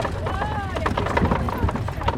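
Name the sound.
horse hooves clip-clopping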